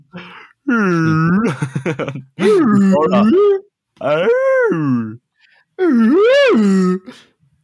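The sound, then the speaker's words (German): A voice imitates a woman's long yawn, likened to a blue whale, in four loud, drawn-out, rising and falling moaning bursts separated by short pauses. “Und dann ist mir Top 2 eingefallen. Die war wirklich Blauwal.”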